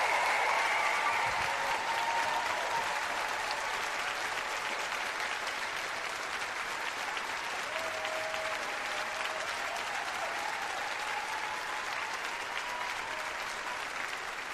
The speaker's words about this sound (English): Please give a warm Pod Save America applause to Barbara Lee.